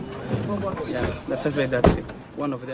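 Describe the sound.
In a slum, a police officer slams a suspected gangster into a car's boot: a single heavy slam cuts sharply through the man's raised, pleading voice, with other talking around it; one loud, metallic thump that quickly dies away.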